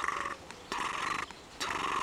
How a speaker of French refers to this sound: Et ça, ce moment là où il y a juste les vaches qui sont là, le bruit des vaches, le son des vaches qui, qui ruminent, qui broutent, qui sont dans la nature et puis cette ambiance